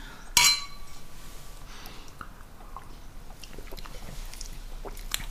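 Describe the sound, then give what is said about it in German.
A single bright clink of wine glasses, one holding turquoise-blue wine and one pink, touching in a toast rings out near the start, clear, with a short shimmering ring, followed by quiet ambience and small sounds. “Zum Wohl. Prost.”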